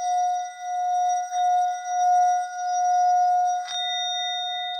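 A Buddhist singing bowl (orin) being rubbed rings with a steady, sustained metallic hum whose volume swells and dips in slow waves, broken near the end by a brief scraping touch that adds a higher overtone.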